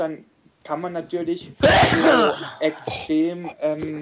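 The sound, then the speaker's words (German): A single loud, explosive sneeze bursts out in the middle of someone's sentence, with a man speaking just before and after it. “Gesundheit Wohlsein alle wieder wach.”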